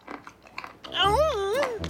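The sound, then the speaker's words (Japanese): A few quick, soft smacking bursts give way to a drawn-out, wavering hum, a voice imitating the Hoshibana Mole character sitting on the ground and happily munching food. “星花モグラは地面に座り込むと何かをもぐもぐ食べ始めました”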